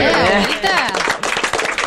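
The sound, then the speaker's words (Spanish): A short burst of applause for the teacher's English: after a moment of excited voices, a group claps in quick, uneven rhythm, the crisp claps fairly loud and blending together. “aplauso a la profe de bien, inglés.”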